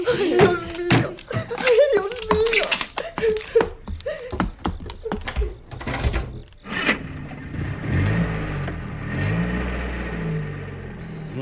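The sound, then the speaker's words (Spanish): Sharp knocks and a couple of door slams over hurried voices, then a car engine rises and revs steadily as the vehicle accelerates away. “Pues apresúrense a subir al coche si no quieren que termine con ustedes a balazos aquí mismo.”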